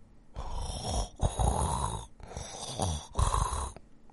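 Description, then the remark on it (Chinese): Four loud, rasping snores in a steady rhythm, each about three-quarters of a second long and separated by short quiet breaths, with a throaty rattle and no talking; an old man and a kitten snoring together. “可是，老人和小猫都没有去注意他，他们一起打起了呼噜。”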